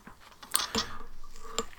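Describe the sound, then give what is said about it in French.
Adhesive tape being cut, heard as a few sharp, crackly snips and clicks spread over about two seconds, fairly quiet, with no voices. “Qu'est-ce que c'est que ces bruits Pardon.”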